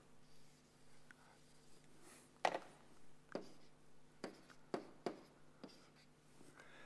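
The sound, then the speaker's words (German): Pen strokes scratch across paper in short, sharp marks, quick checkmarks ticked while assigning items to time complexity classes, spaced irregularly over a quiet hum, fairly crisp with no voices. “Ne, Moment, jetzt habe ich ja einen Haken zu viel.”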